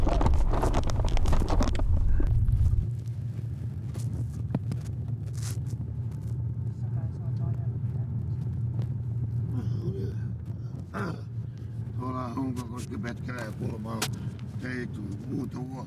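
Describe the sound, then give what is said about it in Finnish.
A steady low engine rumble fills a moving car's cabin, loudest in the first seconds before settling into a constant drone, with faint voices talking beneath it later on. “Voisiko tässä autossa nauhoittaa?”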